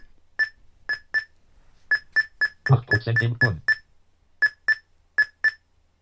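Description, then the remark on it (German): Short, high electronic beeps from a CD/DVD burner while it burns a disc, its progress counting up past 9 to 16 percent, more than a dozen beeps in uneven clusters, with a brief stretch of speech in the middle over which the beeping continues. “Fragt mich jetzt nicht, was das Gepiepse ist.”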